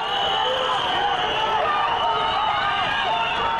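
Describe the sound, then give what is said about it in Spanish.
Street sounds of Bogotá in 2019: a dense, steady din of many overlapping voices chattering at once, with a constant murmur of background noise and no pauses throughout. “Así suena Bogotá.”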